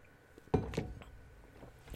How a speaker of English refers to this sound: Drink of water.